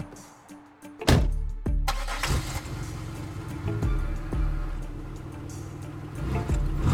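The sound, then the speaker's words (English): A car engine cranks briefly with a loud starter whir, then catches and settles into a steady, rumbling idle that continues to the end. No voices are heard. “We get in the car and get out of there.”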